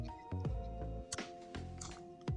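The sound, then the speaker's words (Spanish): Several sharp, clacky keystrokes from a mechanical keyboard, tapped at an irregular pace just to make typing noise rather than actually type, over a steady low electrical hum, with no one speaking. “Sí, porque ahora no estoy tecleando, estoy haciendo como tecleo, haciendo ruido.”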